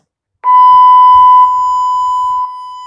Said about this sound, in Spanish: Lo que voy a hacer es poner la fuente de sonido de 1 kHz, 0 dB y voy a ir girando el teléfono eh, respecto a la fuente de voz.